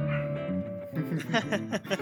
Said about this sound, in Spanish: Bueno, y para los, que, para los que escucharon, mi perro también está de acuerdo.